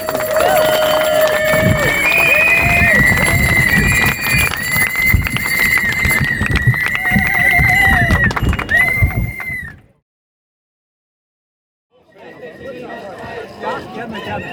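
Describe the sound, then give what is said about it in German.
A large crowd at a demonstration for quality media and the rescue of the Wiener Zeitung newspaper applauds and cheers loudly for about ten seconds, shrill whistles ringing over the clapping, then falls silent before a softer burst of applause and cheering starts up again. “Und obwohl wir uns selber genannt haben, genannt haben, der Aufschrei der Leisen, es ist okay, wenn man uns hört. Danke. Applaus”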